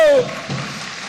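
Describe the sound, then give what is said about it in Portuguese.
An audience applauds God in worship: a steady, crackling wash of clapping that swells slightly midway, after a brief tonal voice sound trails off at the start. “Aplauda Ele se você está comigo.”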